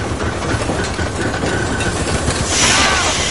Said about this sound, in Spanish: Thomas se sitúa junto al motor y escucha atento. La máquina funciona a vapor.